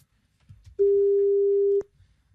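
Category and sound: signal or alarm, telephone ringback tone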